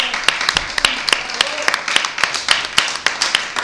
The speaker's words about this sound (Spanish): Hoy estamos de aniversario. Hoy cumplimos 10 programas, señoras y señores. Un aplauso para todos nosotros.